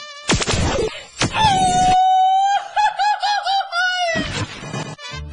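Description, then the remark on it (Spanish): A loud Mexican grito in a promo for the radio station La radio del diario, 97.7 FM: sharp opening whoops lead into a long, high sustained cry that breaks into warbling, laughing trills before a final yelp, with no talking. “El mejor grito de México se escucha en la radio del diario”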